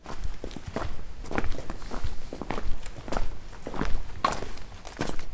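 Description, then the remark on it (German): Steady footsteps walk along a hard outdoor surface through the old town of Werben an der Elbe, a Hanseatic town in the Altmark, Germany. They are clear, with a regular rhythm and light ambient background; a faint voice may be present but nothing distinct is said. “Spazieren gehen durch Werben an der Elbe”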